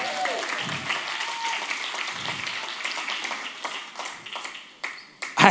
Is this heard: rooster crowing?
no